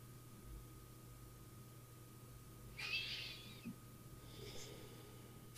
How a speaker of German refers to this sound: Und wie immer atmen wir tief ein und aus.